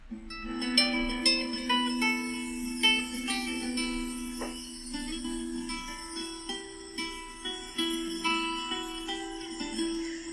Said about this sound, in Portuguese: Então vamos só ouvir essa música.